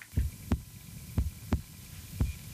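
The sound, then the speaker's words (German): A steady heartbeat thumps in paired low beats, lub-dub, repeating about every 0.7 seconds, muffled over a faint hum, with no voices. “Zum Beispiel Herzklopfen.”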